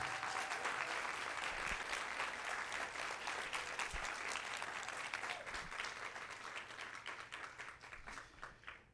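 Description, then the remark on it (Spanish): An audience bursts into sustained applause of faith to the Lord, a dense wash of many hands clapping steadily for several seconds before gradually thinning and tapering off toward the end. “El que lo crea, que le dé un aplauso de fe al Señor.”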